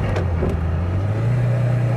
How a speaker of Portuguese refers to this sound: O carro turbo é legal porque a resposta ela vem, mas não é imediata. Agora olha isso aqui, ó. É cara, a turbo não pega, cara.